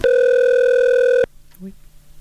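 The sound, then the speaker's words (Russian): A loud, steady electronic ring tone of an incoming phone call holds for just over a second, then cuts off abruptly, leaving a quiet background with a faint, brief vocal sound. “А, еще кто-то звонит.”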